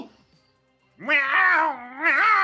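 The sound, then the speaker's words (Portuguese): After a near-silent second, a voice does a long, loud, wavering meow imitation, its pitch rising and dipping over about a second and a half. “Você vê que ele dá um miado assim, né?”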